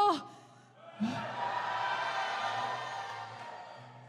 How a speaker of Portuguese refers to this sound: Você pode dar um brado, um grito